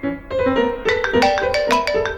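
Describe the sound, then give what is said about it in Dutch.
A telephone rings at 9 o'clock on a Saturday morning, a call from Ruud Lubbers, with a bright, melodic ringtone, a rapid run of repeated tonal pulses that sounds clear, with no voices over it. “Het is zaterdagochtend, 9 uur, als de telefoon gaat.”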